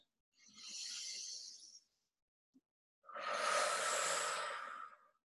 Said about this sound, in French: Une dernière fois, grande inspire par le nez, grande expire par la bouche.